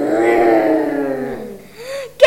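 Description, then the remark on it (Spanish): A loud, drawn-out rumbling roar, voiced by a person imitating a growling stomach, sliding slowly downward in pitch over about two seconds before tailing off with a short rising groan. “El rugido volvió a sonar.”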